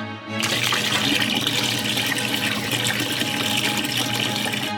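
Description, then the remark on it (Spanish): Water gushes steadily from a tap into containers such as vessels, tubs and coolers in a home in Nuevo León, a continuous splashing rush that starts abruptly and holds at a strong, even level, with no talking. “Llenamos en vasijas, en tinas, en donde sea, en hieleras, juntar agua”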